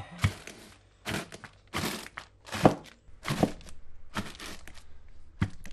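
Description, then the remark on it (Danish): Brittle meringues being crushed in a bag with a rolling pin: a series of sharp, crunchy cracks and thumps, about seven strikes at irregular intervals, fairly loud with crinkly bag rustle between. “Nu tager jeg nogle marins og kommer i en pose der, som jeg knuser med, med kagerullen.”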